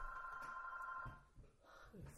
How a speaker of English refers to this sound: Welcome to the Songs and Stories podcast, where the phone rings right in the middle of a gig. Exactly. All right, shall we? Let's make sure the machine picks it up.